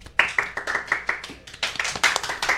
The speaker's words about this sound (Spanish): Un aplauso, para el un aplauso, un aplauso.